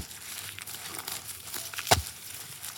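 Someone digging a hole in soil with a shovel: a steady, gritty crunching and scraping that continues throughout, with one sharper, louder crunch of the shovel biting in near the end. Fairly quiet, with no voices.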